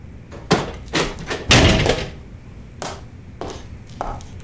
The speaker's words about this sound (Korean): 집주인은 대답 없이 문을 닫았다.